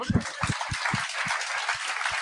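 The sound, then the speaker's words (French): An audience applauds to answer a poll, clapping for those who consume alcohol regularly: a dense wash of clapping that holds steady for a couple of seconds, with low rhythmic thumps beating underneath at a regular pace. “Par applaudissement, les gens qui consomment de l'alcool régulièrement, on parle dans une semaine régulière.”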